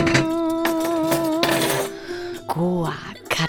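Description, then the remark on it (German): Bright clatter of dishes and cutlery being set down as a table is laid, with ringing metallic tones lingering between sharp clinks and a heavier knock near the end as an electric oven door is shut. “klappte die Elektroherdtür zu und machte sich daran, den Tisch zu decken.”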